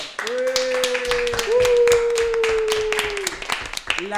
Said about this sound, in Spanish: Y bueno, un aplauso